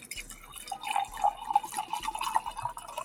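Wine glugs and trickles steadily into a glass for a few seconds, a bubbly pouring sound with faint splashes and no one speaking.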